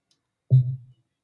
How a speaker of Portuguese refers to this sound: Esse é o barulho da Alexa de CALA A BOCA!